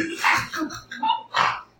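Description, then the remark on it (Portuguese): A person imitates a pig with a quick series of four or five loud, raspy snorting grunts in a choppy, uneven rhythm, with no talking. “Isso que vocês estão ouvindo, parece um porco, não é lindo.”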